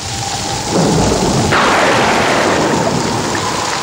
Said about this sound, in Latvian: Nu, un, tā kā tas pērkona negaiss un arī zibens rodas ar šiem augstajiem mākoņiem, bieziem pērkona negaisa mākoņiem.